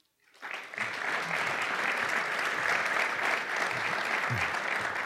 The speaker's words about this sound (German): Ganz herzlichen Applaus für die Co-Founderin